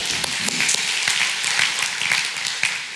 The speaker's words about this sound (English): We clap.